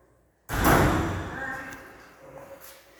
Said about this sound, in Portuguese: Eu antevi que a porta ia bater, por isso que eu fechei os olhos aqui. Mas não foi uma visão espiritual, não. Eu vi mesmo o vento da porta, porta trazendo. O vento trazendo a porta.